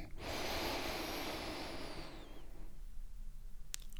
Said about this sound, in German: Dann schließt bitte die Augen und atmet einmal ganz tief durch die Nase ein